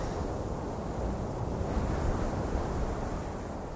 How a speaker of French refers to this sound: C'est le bruit des feuilles dans les arbres.